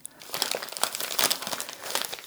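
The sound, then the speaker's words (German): Gift wrapping paper rustles and crinkles steadily as it is unwrapped, a busy crackle of many small crunches with no voices over it. “Es raschelt und knistert schon richtig.”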